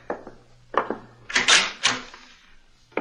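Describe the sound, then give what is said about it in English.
A door is opened: a few light latch clicks, then a louder rattling, scraping burst as it swings, followed by quiet. No one speaks. “Open the door, Robert.”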